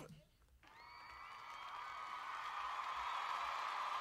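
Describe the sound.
A crowd's cheering swells after a brief pause, a steady wash of voices growing louder over a few seconds, with sustained whistle-like tones riding on top. The whole effect stays fairly quiet.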